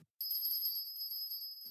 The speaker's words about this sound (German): Eine Glocke hing an der Pforte. Merle stupste die Glocke an, und es tönte hell durch den Himmel.